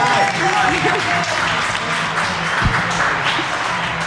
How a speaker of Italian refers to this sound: Grazie, applauso! Dai, dai!